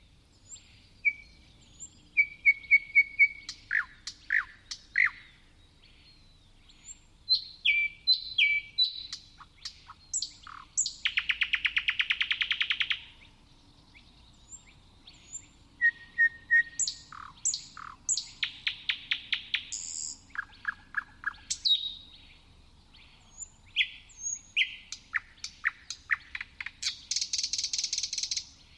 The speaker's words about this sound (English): what was that beautiful bird song that we just heard there? Uh, that was a thrush nightingale, which I recorded in Angarn Reserve, just north of Stockholm, in May. And the bird was singing in the middle of the night